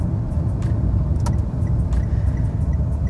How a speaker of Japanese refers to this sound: で今度今目の前に出てきたのがトヨタクラウンアスリートという車なんですけど